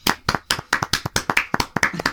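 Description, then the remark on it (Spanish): Hand clapping, a run of about a dozen sharp, bright claps at a steady, slightly uneven pace, fairly loud with no voices over them. “Sí, bueno, sacaste aplauso.”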